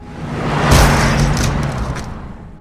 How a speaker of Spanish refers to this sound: El coche la golpeó contundentemente y acto seguido pasó por encima de ella, cumpliendo con el cometido de arrancarle la vida.